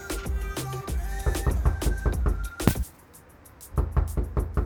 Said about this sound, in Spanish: ¡Tocan! ¡Voy! ¿Quién? Policía, abra la puerta, por favor.